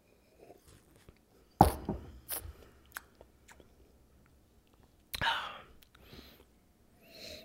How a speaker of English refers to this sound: This is just me drinking whiskey, guys.